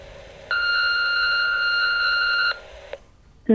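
An answering machine beep on a confession phone line for parents, signalling to record a message after the tone: one steady, high-pitched electronic tone lasting about two seconds, loud and alone with no talking, followed by a fainter lower tone that briefly lingers before cutting off.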